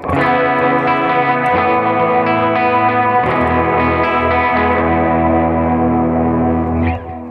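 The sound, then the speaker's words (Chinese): An electric guitar built by Shitou, fitted with replacement Sir pickups and a neck that goes from a V to a C profile, rings out through heavy effects. It is distorted and chorused with a wash of echo, playing sustained chords struck a few times before fading at the end. No one speaks. “然后声音其实我拾音器是有换成 Sir 的拾音器，然后再加上这把琴的 neck 是我非常非常非常喜欢的，它是 V 转成 C，它就是非常非常适合弹奏，弹快的、弹慢的，然后你弹这种握的都很适合，也非常适合手小的人使用，所以我很喜欢这把琴。”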